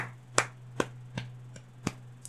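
Someone claps their hands about six times in a slow, steady rhythm, the claps fairly quiet, with a faint low hum running underneath and no talking.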